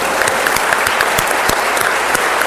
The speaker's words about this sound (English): let's give her a round of applause for her,